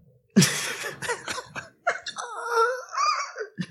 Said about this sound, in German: Na, ah, ich habe gerade ein bisschen Krach im Treppenhaus, warte mal kurz. Ein Gebrüll! Die Kuhnachbarin, die gagt da hinten rum. Ja, höre ich. Macht jemand Husti draußen?